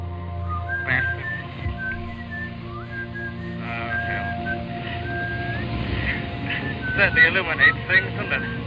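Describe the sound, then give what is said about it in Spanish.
Someone whistles a wandering melodic tune in short gliding phrases, clear, over a steady low engine-like hum that rumbles throughout. “Y luego silbábamos el canto.”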